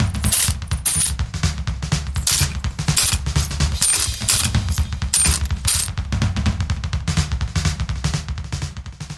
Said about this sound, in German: Und äh, nein, der Typ, der an letzterer Adresse mit dem Spendenkessel rasselt, ist kein Bettler. Es ist der Podcaster Don Quelle, der sich riesig darüber freut, wenn Sie ihm ein paar Münzen in das Behältnis werfen.